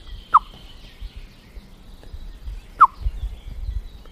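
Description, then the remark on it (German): Two sharp, clipped blackbird alarm calls ring out a couple of seconds apart, distinct, warning of a cat moving around a garage, over a quiet outdoor background with a low rumble. “Und dieser Ton, der dieses Duck, das sagt gleichzeitig dem Amselweibchen, was auf dem Nest sitzt, ich habe eine Katze gesehen”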